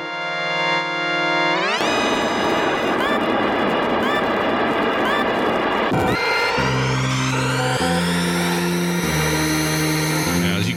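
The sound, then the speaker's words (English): Mode 7 racing video game audio with Captain Falcon's hover car: a synthesized hover-car engine whines up sharply in pitch, then holds a loud, buzzing drone that climbs again midway while a stepping bass melody plays underneath. “Mode seven is where it was at, and as a result, you got uh, a game that sounded a lot like this.”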